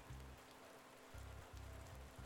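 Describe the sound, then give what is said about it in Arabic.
Heavy rain suddenly pours down in torrents, a steady, dense hiss, with low rumbling pulses surging underneath at intervals. Fairly quiet overall, with no voices. “وقفوا عند مدخل المنزل للحظة إلى أن أمطرت السماء بغزارة ثم أغلقوا الباب وهم يسمعون صوت المطر الشديد وهو يتساقط بالأطنان وباندفاع مفاجئ في كل مكان وإلى الأبد”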